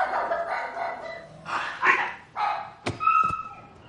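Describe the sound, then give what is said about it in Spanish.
A dog barks excitedly as it runs after people leaving through a patio door, a rapid series of sharp barks and yips, with a couple of brief clattering knocks near the end. “El perro corre tras ellos.”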